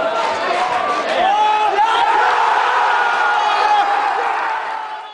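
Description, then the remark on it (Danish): A large crowd of OB football fans loudly chants the name of Brazilian player Bechata Oliveira, who decided the 2007 cup final, over and over, many voices merging into a steady, rhythmic roar that holds for several seconds before fading slightly. “Og hvis jeg skal præsentere ham på samme måde som Torninger, vil jeg gøre det med en flok OB'er, der med garanti aldrig vil glemme den charmerende brasilianer, som afgjorde pokalfinalen i år 2007.”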